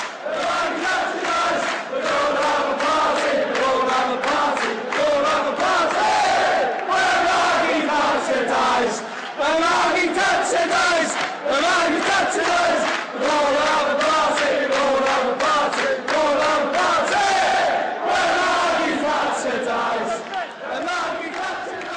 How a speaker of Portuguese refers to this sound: O que você está ouvindo é o áudio das tribunas do Enfield.